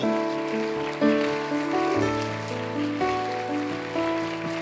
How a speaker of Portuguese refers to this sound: Aplauda o Senhor. Oh, aleluia! Aplauda mais forte. Sim, Senhor.